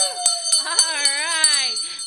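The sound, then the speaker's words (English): A hand bell, rung by the host in honor of a caller, rings repeatedly in quick, sharp strikes, its bright high tone sustaining throughout, while voices hold a drawn-out, wavering sound underneath. “Okay, so that's one ring.”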